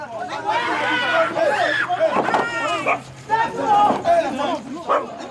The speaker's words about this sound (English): Just there, a teenage boy is being accused by some men of stealing. And as you pass, the men are beating the boy, urged on by a noisy crowd, until he is dead.